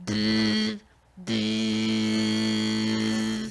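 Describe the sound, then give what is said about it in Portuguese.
A voice beatboxes the steady electric buzz of a tattoo machine: a loud, harmonic hum in two bursts, a short one then a longer sustained one after a brief pause, with no talking. “maquininha de, de tatuagem.”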